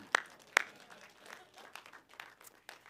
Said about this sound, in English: Put your hands together and say bueno.